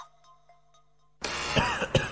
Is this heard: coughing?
yes